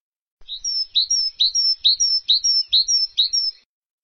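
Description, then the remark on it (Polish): A tit sings a clear, bright two-note phrase, repeated about seven times in a steady, even rhythm, alone with no other noise. “Czy widzieliście kiedyś w zimie sikorkę?”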